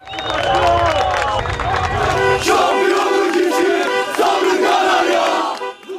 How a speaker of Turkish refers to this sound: Samandıra Can Bartu tesislerinde de büyük sevinç vardı. Çok sayıda taraftar tesislerde takım otobüsünü kutlama yaparak bekledi. Sarı lacivertliler hem futbolculara hem de teknik direktör Aykut Kocaman'a sevgi gösterisinde bulundu.